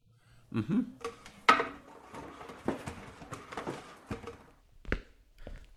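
Dishes and cutlery clatter in a loose series of sharp clinks and knocks, some louder than others, with quiet gaps between them and no talking.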